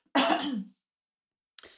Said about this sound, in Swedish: Jag måste hosta lite.